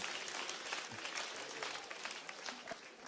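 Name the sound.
audience applause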